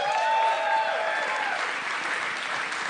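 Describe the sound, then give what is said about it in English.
A live audience claps steadily in a dense, sustained burst of applause for the music played that night, with some whistling or cheering tones at the start, loud throughout. “Also, let's hear it for the music I played tonight”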